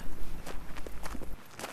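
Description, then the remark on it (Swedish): Footsteps walking at a steady pace, several crisp treads in a regular rhythm over a low background rumble, with no voices, on the way to a home near Brostugan in Nykarleby on an afternoon in early July. “Jag går hem till dem en eftermiddag i början av juli.”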